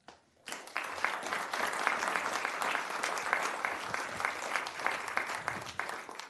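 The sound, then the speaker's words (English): Sustained applause from an audience for veterans at a Veterans Day event, a dense steady patter of many hands clapping that starts abruptly after a brief quiet moment and continues at an even level. “Let's hear it.”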